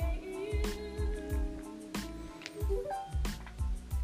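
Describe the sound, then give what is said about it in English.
A Google Nest Hub smart display's reset chime, heard while both volume buttons are held down, sounds as sustained electronic tones with a brief rising note, set against steady low rhythmic thumping and a few sharp clicks. No one speaks. “Okay, I just heard the chime, so I just let up on the buttons.”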